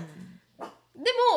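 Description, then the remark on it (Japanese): A dog barks a few times, short sharp yaps with a rising, whiny tone, separated by brief pauses, with a hint of a voice at the start. “ごめんなさいね犬がねごめんなさい申し訳ない”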